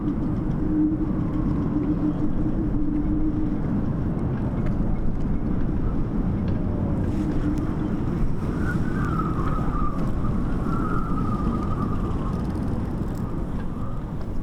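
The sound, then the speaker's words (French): Strong wind roars in a steady, dense rumble, heavily muffled as if the microphone were covered by cloth, with faint whistling tones drifting through and no voices. “Je fais du son sous le manteau parce qu'il y a trop de vent.”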